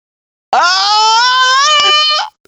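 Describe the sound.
A person lets out a loud, sustained imitation of a scream, a single high wailing cry held for nearly two seconds before cutting off abruptly.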